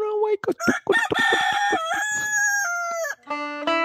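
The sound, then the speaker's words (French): A rooster crows loudly in an intro jingle, a long drawn-out cock-a-doodle-doo after a few choppy opening notes, then a second, shorter call starts right at the end. “Et on fait rouler le générique, monsieur, le petit coq, le petit temps”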